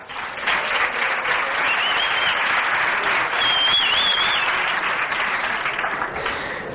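Sustained audience applause, a dense steady clatter of many hands clapping for several seconds, with a couple of high whistles cutting through partway.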